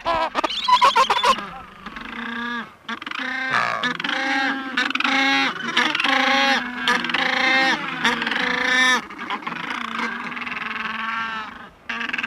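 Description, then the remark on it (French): A colony of penguins calls continuously to find their mates, with loud, harsh, trumpeting brays overlapping one another for the whole stretch, and no voices in between. “Le manchot est timbré”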